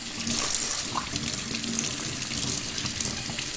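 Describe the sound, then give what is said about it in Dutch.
A water bottle is rinsed with cold water under a running tap, a steady hiss and splash of water with small gurgles as it fills and spills over, no voices. “Ik spoel een waterfles van mijn zoon even om.”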